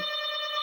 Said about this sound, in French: Excuse-moi, c'est la sonnette. Euh, Un collier UPS. Sûrement.